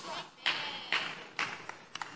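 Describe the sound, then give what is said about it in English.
Sharp hand claps ring out in a steady, evenly spaced rhythm, three loud ones followed by a few quicker, lighter claps, each with a short trailing ring over a faint background murmur. “Four hand claps.”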